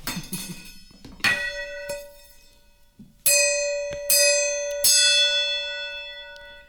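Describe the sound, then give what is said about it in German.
A gong is struck several times in quick succession, each loud metallic hit ringing out with a bright, sustained shimmering tone that overlaps the next; no one speaks. “Hier willst, hier willst du mal einen Gong schlagen?”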